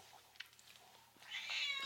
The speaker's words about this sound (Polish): Słuchajcie, co mam zrobić z tym kotem? Ona specjalnie, wiecie jak ja nadaję, ona zaraz zaczyna wrzeszczeć.